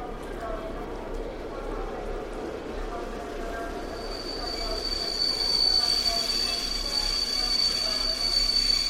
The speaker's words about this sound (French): Je somnolais dans le métro quand un nouvel arrêt brusque s'est produit.